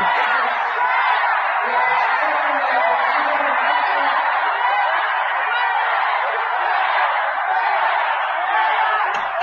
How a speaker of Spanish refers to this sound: Híjole, fuera, fuera y vendido le gritaban a Aurelio Nuño.